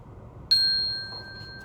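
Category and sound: signal or alarm, page-turn chime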